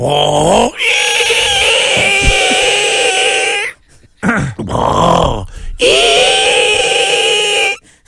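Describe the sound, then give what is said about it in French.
A voice imitates the squealing brakes of a garbage truck in Montmagny in summer, brakes that needed work: two long, loud, high-pitched screeches with a strained tonal whine, broken by brief grunting and sputtering sounds in between. “Mais à Montmagny, le camion des vidanges, l'été, il y avait une job de break à faire dessus.”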